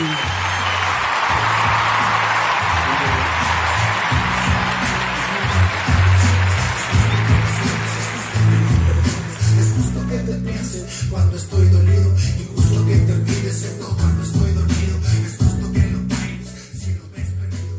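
A loud, bass-heavy song plays throughout with a steady pulsing beat, first under a wash of crowd applause and cheering that fades after several seconds, leaving the music alone.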